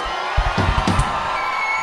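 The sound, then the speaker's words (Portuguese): A crowd lets out a loud shout on request over a dense, roaring wash of noise, with a few rough bursts of voices early on before settling into a steady din. “Dá um grito aí para nós.”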